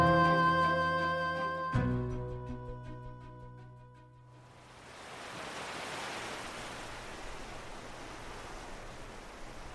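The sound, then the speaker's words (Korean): A musical passage fades out, then a steady wash of ocean surf swells in and rolls on continuously, a broad hissing roar of waves breaking on the shore below a seaside hill, with a sea breeze blowing, no voices. “아, 이 기분 좋은 바닷바람 하며 크, 저 파도 소리.”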